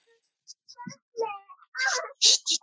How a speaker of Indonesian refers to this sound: kenapa ada suara anak kecil?